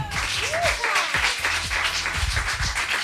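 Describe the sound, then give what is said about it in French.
A crowd applauds steadily for a few seconds for a group that gave a correct quiz answer: a dense, even patter of many hands clapping, with a faint whistle rising briefly early on. “Par butin, c'est une bonne réponse, on peut les applaudir.”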